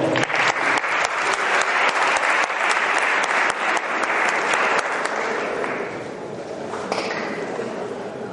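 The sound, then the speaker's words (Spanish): An audience bursts into steady, dense applause, a continuous wash of many hands clapping that holds strong for several seconds before softening slightly near the end. “Fantástico, un aplauso.”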